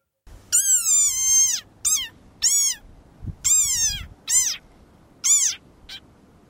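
A frog's squeaking defensive call: about six loud, shrill, wailing squeals in quick succession, each rising then falling in pitch, like a cat's meow, with brief gaps between.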